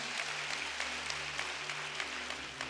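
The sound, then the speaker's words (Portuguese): Steady, dense applause from a crowd clapping for Jesus, a continuous wash of many hands clapping at once with no voices standing out, holding at an even, fairly loud level throughout. “Pode dar uma salva de palmas para Jesus bem forte.”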